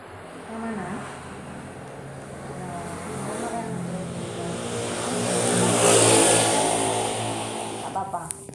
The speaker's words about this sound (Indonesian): suara sepeda motor